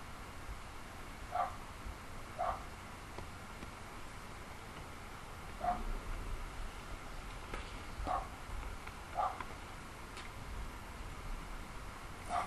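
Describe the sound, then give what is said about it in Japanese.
A neighbor's dog barks angrily in short, separate bursts, about seven over several seconds, sounding faint over a steady background hiss, with no one talking. “ちょ、ちょ、ちょ、ちょ、隣のワンコちゃんがね、隣、隣のワンコちゃんが、ね、怒っちゃった。”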